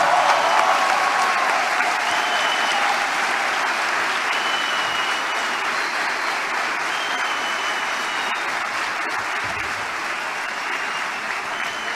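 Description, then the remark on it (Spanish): Loud, sustained applause from a large audience, a dense wash of clapping hands that holds steady for the whole stretch with no talking over it. “Fuerte el aplauso.”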